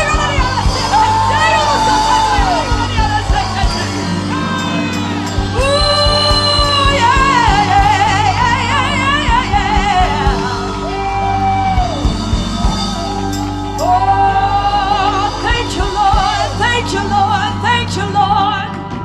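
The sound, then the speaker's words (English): A crowd of worshippers shouting, whooping and cheering together as a joyful noise unto the Lord, in a loud, continuous swell of overlapping voices, with high excited yells rising and falling for nearly twenty seconds. “Come on, somebody, just lift up a joyful noise unto the Lord.”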